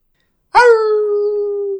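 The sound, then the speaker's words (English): A person's voice imitates a coyote howl: after a moment of silence, one long, steady, sustained howl rings out loudly and holds its pitch until the end. “As you step inside, you can hear the distant sound of a coyote howling.”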